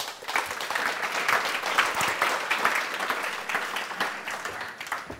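audience applause

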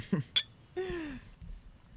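beer glasses clinking

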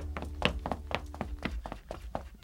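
knocking

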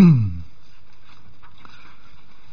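turning book pages

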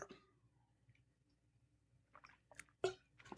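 sipping water

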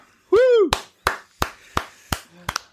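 applause

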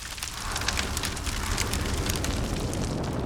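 crackling fire

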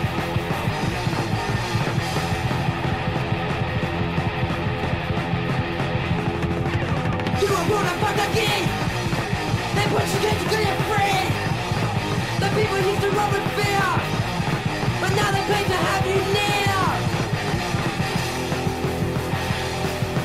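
punk rock song playing

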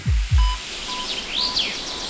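forest ambience with birdsong

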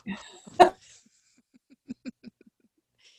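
dog barking

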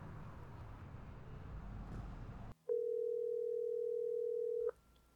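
telephone dial tone

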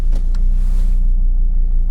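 car engine

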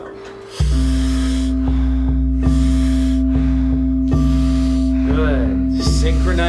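deep rhythmic breathing

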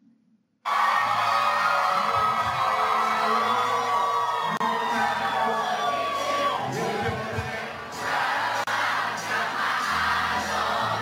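concert crowd cheering

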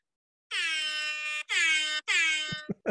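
air horn sound effect

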